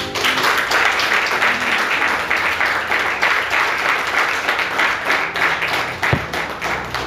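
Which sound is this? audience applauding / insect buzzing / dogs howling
audience applauding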